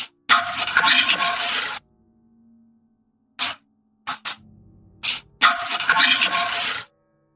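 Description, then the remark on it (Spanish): Keys are dropped onto a table twice, each landing a bright, metallic jangle lasting over a second, with a few short clicks and clinks in between. Fairly loud, with no talking. “Parecen unas llaves en una mesa, ¿no?”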